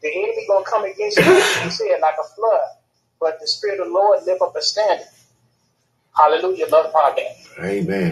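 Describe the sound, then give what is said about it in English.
A single sharp, loud sneeze bursts out near the start, cutting into a man's ongoing preaching-style speech, which carries on with short pauses afterward. “Bless you. Bless you,”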